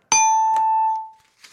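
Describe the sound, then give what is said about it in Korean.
A single bright bell ding, a quiz wrong-answer signal, rings out clearly with a sharp strike and a ringing tone that sustains for nearly a second before fading, followed by a faint soft rustle. “시원한 땡 드렸고요.”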